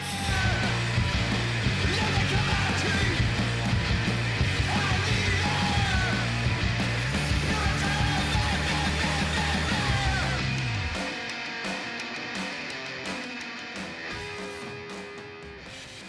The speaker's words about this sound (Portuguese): Essa música que a gente tá ouvindo de fundo é a faixa título, aquele vocal meio. O refrão meio duplicado também.